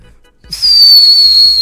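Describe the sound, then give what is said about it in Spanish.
A person whistles one long, steady high note that starts abruptly, stays loud, and drifts slightly lower in pitch over about a second, with no talking. “Muchas gracias por chiflar por mí.”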